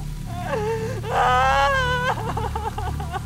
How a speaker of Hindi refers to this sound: गांव से वो दोनों थोड़ी ही दूर थी जब उन्हें किसी औरत के रोने की आवाज आई